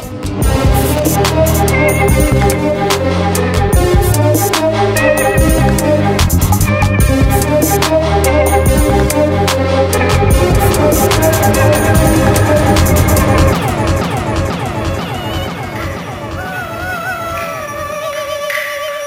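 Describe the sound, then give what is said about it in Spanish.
Loud, busy instrumental soundtrack music from the video game Grand Theft Auto: Chinatown Wars, played on a Nintendo DSi, plays continuously with no talking, layered melodies over a steady beat, shifting toward smoother sustained tones near the end. “sonora tan extraña es de Grand Theft Auto Chinatown Wars.”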